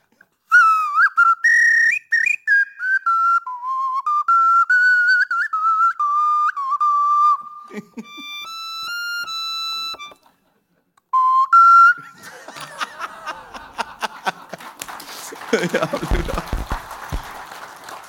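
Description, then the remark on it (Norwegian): Two people whistle together in wavering, sliding tones for several seconds, followed by a run of steady electronic-sounding pitches and then a rough, noisy clatter with no talking. “Det høres ut som to som plystrer samtidig, og det kan jo være artig.”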